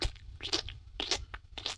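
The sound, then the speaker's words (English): A voice imitates loud, wet gum chewing like a cow: a series of smacking, crackly mouth sounds in an uneven rhythm, with sharp little pops between them. “And I hate people who chew gum like with their cow, like cows, like, and then do that,”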